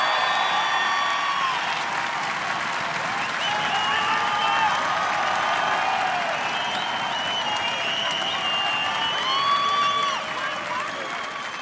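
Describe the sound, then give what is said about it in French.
A large audience applauds loudly and steadily for about eleven seconds, with scattered cheers, whoops and whistles rising above the dense clapping before it eases slightly at the end, making noise for Kylian Mbappé. “Kylian Mbappé, du bruit Du bruit”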